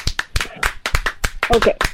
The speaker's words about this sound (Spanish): A ver, aplaude. ¿Qué tiene que aplaudir? Ay. ¿Haces tortillas o qué?